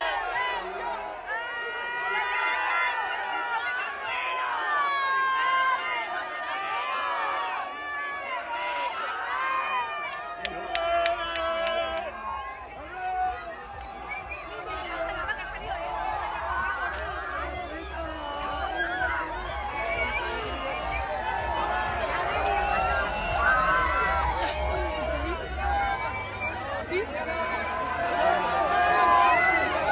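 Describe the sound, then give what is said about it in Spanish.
An excited crowd cheers and shouts in the street at the end of a massive event, a dense, continuous roar of many voices with sharp whistles and yells rising above it, staying loud throughout. “Mira la gente como estaba alborotada y se expuso bastante ante ante el público, no, ahí en la calle arriba del carro.”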